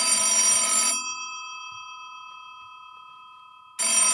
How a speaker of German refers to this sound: Telefon, Fahrradschrauber. Ich habe keine Lust ranzugehen.